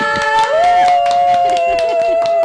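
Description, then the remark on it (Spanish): An audience applauds to welcome a guest host from Orbe Networks, a dense, steady patter of many hands clapping, mixed with sustained tonal notes underneath throughout the short stretch. “Vamos a recibirla otra vez con un fuerte aplauso.”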